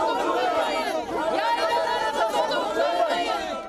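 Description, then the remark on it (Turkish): A crowd of Emirdağ villagers shouts together at a protest against a gold mine project, calling out to an expert inspection panel visiting their highland pastures; many overlapping voices form a loud, continuous roar of raised chanting and calls with no pauses throughout. “Yaylalarında altın madeni için incelemeye gelen bilirkişi heyetine böyle seslendi Emirdağlılar.”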